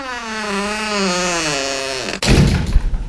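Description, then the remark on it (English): A door creaks on its hinges with a long, slowly falling groan, then slams shut with a single loud bang and a brief rumbling rattle. “Utilize, in you go, and we'll slam the door.”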